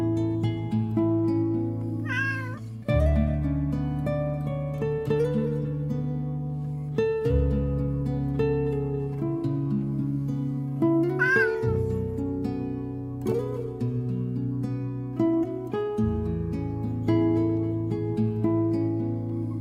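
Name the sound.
cat meowing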